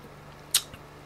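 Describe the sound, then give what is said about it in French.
An electric fan on low speed gives a faint, steady low hum throughout, with one brief sharp high-pitched squeak or click just past the midpoint and no voices. “C'est déjà que vous entendez un petit peu le ventilateur. Je l'ai mis en vitesse faible, mais au moins qu'il ventile un peu parce que là, je peux pas.”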